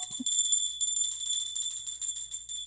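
A small bell is shaken hard and rings continuously for a few seconds, bright and metallic with a fluttering, rapid pulse, close by and fairly loud, after a brief knock at the start.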